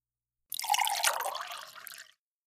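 Coffee pours steadily into a cup for about a second and a half, a bright splashing with a pitch that creeps upward as the cup fills, then stops.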